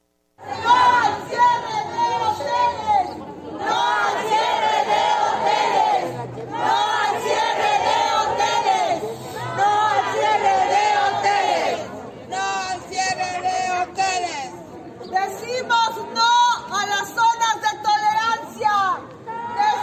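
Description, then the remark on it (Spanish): A crowd of women protesters chants loudly and in unison outdoors below the window of the head of government, shouting slogans demanding that hotels not be closed, in repeated rhythmic phrases with short pauses between them, their voices filling the open space. “Ahí estamos escuchando sus peticiones, ¿no? Que por un lado piden que no cierren los hoteles, ¿no?”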